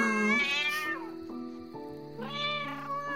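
A small pet cat at home meows twice, each call a drawn-out, rising-and-falling cry with a bright, harmonic tone, separated by a brief lower murmur; the sound is clear and fairly loud with no talking.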